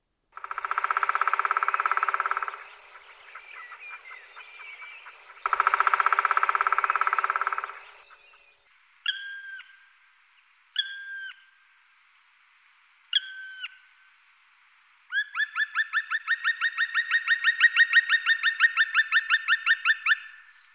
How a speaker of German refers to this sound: Dann hören wir doch mal rein, wie die sich so anhören. Hier kommt Klopfen und Ruf des Schwarzspechtes.